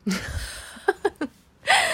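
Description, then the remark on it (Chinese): A sneeze: a breathy intake, then three short catching gasps in quick succession, ending in a loud, bright, noisy burst that carries to the end. “OK，各位小朋友，哎呦，还真的打喷嚏呀”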